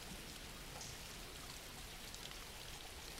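Steady rain falls without pause, a soft, even hiss of countless drops that stays at the same low level throughout, with no voices over it.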